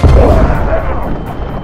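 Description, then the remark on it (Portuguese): A loud blast of two sticks of dynamite, hit by a gunshot in mid-air in a confined space, booms out at once, followed by a heavy rumbling roar that slowly fades over the next second or so. “Wade jogou as duas dinamites em direção a eles e apertou o gatilho, atingindo os explosivos no ar.”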